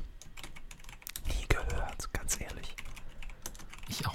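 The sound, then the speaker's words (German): Rapid, irregular clicking of keys on a computer keyboard as people search on Google, fairly quiet, with a few louder taps standing out and faint murmuring in the background. “Sie sind nur noch am Googeln, ne?”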